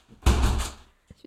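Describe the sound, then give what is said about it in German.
A window is pushed shut while it is raining outside, with one heavy thud that rumbles briefly before fading, followed by a couple of faint small taps. “Ich mache mein Fenster zu, es regnet und es laude.”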